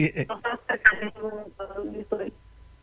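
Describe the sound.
A woman caller's voice over a phone line comes through in choppy, fragmented bursts, cutting in and out so the speech is broken and hard to follow.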